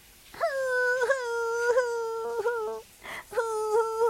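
Soft, whimpering cries from outside a door in a string of high, wavering whines, each held briefly, with a short breathy gap before the last few sobs. No one speaks.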